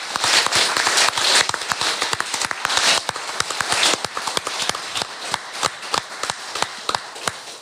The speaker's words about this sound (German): ich würde sagen, das ist einen großen Applaus wert, ja.